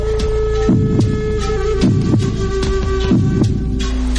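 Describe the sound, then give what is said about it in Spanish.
A steady heartbeat thumps in low, paired beats, repeating about once a second over a sustained tonal hum, with no one speaking. “El latido es el de tu corazón, junto con el de nosotros, latiendo al unísono.”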